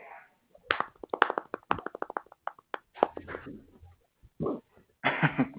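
A quick, uneven run of sharp hand claps, a dozen or more in a couple of seconds, followed by scattered thumps and a brief murmur of voice-like noise.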